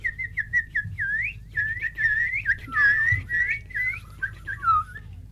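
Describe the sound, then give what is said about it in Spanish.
A spring peeper tree frog, a light brown frog about 2.5 cm long, calls in spring in quick, high, whistle-like chirps, many short rising notes repeated in a steady, lively run over a soft low rumble, with no talking. “Es de color café claro y en cuanto el aire de primavera empieza a embalsamar el ambiente, la rana piadora empieza su canto, dulce y musical. Mucha gente las confunde con pájaros y grillos.”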